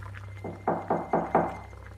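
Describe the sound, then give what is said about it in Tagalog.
Four quick, evenly spaced knocks on a house door, moderately loud, over a low steady hum with no one speaking. “Nang may narinig akong katok sa pinto.”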